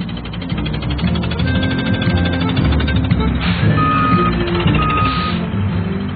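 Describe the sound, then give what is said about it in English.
A big water truck backs up, its steady reversing beeps repeating in an even rhythm over a loud, rumbling diesel engine, continuous throughout. “pretended he was driving a big water truck.”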